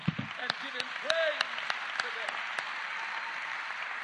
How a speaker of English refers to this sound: Come on, clap your hands.